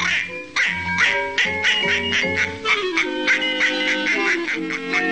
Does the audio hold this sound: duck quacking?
yes